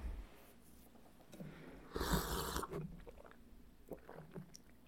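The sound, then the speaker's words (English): Wet gulping of drinking water, with a loud slurping swallow about two seconds in and a few softer swallows and mouth noises afterward, with no talking. “so, uh, drinking water.”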